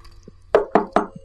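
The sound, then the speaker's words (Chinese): Three firm knocks on a door, evenly spaced about a fifth of a second apart, each a sharp thud with a short ring, with quiet in between and no talking. “咚咚咚，又敲了三下，加上被吵醒的那六下，我的记忆中一共是九下，以三下一组为单位。”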